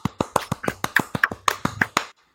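A quick run of about a dozen sharp hand claps in a steady, brisk rhythm, like brief applause, stopping abruptly into silence.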